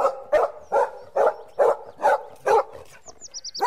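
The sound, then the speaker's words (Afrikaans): A dog named Spikkels barks repeatedly in a steady rhythm, seven or so loud barks, followed by a few short high-pitched bird chirps at the end. “Na ruk kom sy hond spikkels nader gedraf.”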